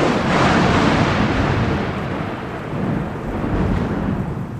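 A deep, sustained rumble of thunder rolls continuously, loud and broad, swelling at the start and easing slightly before rising again, with no voices present.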